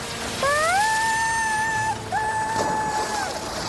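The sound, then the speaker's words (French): Stormy water churns steadily against a boat, a dense, continuous wash of sea noise with no talking, while two long, rising whistle-like tones sound over it one after the other. “Elle se pencha un peu plus pour mieux voir quand soudain, une vague plus forte vint s'écraser contre la carlingue du bateau, la faisant basculer dans l'eau.”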